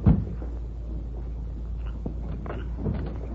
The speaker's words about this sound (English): A few minutes later, Sam Mullins stood knocking on the ranch house door.